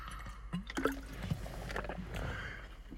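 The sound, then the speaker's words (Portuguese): Sips of water: a few soft, wet slurps and gulps with small mouth clicks, quiet, with no talking over them. “Então, por esse ponto de vista, um gole de água aqui.”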